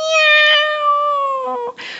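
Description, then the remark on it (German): A person imitates a cat's meow: one long, drawn-out nasal meow that slowly falls in pitch, followed by a short breathy sound. “Ah, imitiert Tiere. Miau,”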